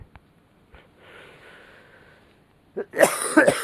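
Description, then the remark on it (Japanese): A person coughs, a quick burst of several harsh, raspy coughs after a soft breathy exhale and a few faint clicks; the person has been unwell this week with a cough that will not stop, from weak bronchi at the change of seasons. “すいません、なんか、今週からちょっと調子が悪くて、なんか咳がね、ちょっと止まらないんですよね。”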